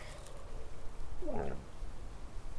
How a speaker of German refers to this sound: Was war das? Das war ein Hund. Hund, Bär oder doch nur von ferne ein Auto?